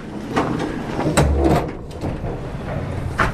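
A vehicle door slides or swings open, then thumps and shuffles follow as someone opens and climbs into a small pink truck decorated with cows, in a farm courtyard, with a few sharp knocks spread over a steady, rumbling background.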